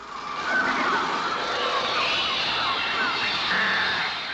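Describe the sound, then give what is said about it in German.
A dense, continuous wash of shrill electronic tones played on a trautonium, with screeching pitches swooping up and down like a flock of shrieking birds, loud and unbroken for the whole stretch. “Aber es sind keine Vögel, die man hier hört. Es sind Klänge eines Trautoniums, dem schwierigsten Instrument der Welt, wie manche sagen.”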